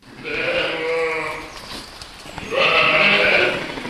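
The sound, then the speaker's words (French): Two drawn-out, quavering bleats from ewes, one after another with a short pause between, loud, with faint farmyard background noise, on a sheep farm south of Laval, France. “Si les brebis sont du genre causante, c'est moins le cas de Bataille, un bélier de deux ans”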